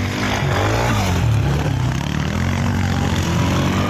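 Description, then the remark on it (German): A racing engine roars loudly and steadily, its pitch rising and falling as it revs, with a harsh, buzzing mechanical tone filling the whole stretch. No one speaks. “Ziemlich laut, das könnte auch eine Kettensäge sein, ist aber der Sound vom Sport. Besser gesagt vom Motorsport.”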